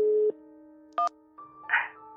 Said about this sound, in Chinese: 云峰马上拨了过去，电话刚响了两声，柳千叶便接了电话